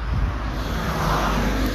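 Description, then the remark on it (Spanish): Steady roadway rumble from cars moving along a street, a continuous low whoosh of traffic with no distinct individual pass-bys, moderately loud, with no one talking. “Estamos disfrutando la vida, viendo los carros moverse.”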